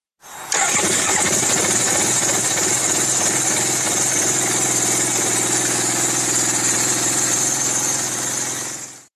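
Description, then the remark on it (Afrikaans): A Suzuki RE5 motorcycle with a 46 kW Wankel rotary engine, weighing 230 kg, starts and then runs steadily at a loud idle, with a buzzing, slightly rough drone and a high whine sustained for several seconds. “Mense gedink dit moet 'n wankel engine, die ding moet lig wees, maar as jy hom hoor loop, dit is die interessantste geluid om uit 'n motorfiets uit te hoor, ek al.”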